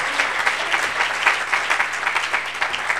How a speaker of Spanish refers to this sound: Ah, un buen aplauso al Señor. Gloria a Dios. Gloria a Dios.